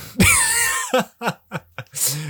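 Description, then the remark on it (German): A person with a lingering cough lets out a loud, drawn-out cough, followed by a quick series of shorter, separate coughing spasms and a final rough exhale. “Ey, sorry, ich bin noch so ein bisschen am Husten.”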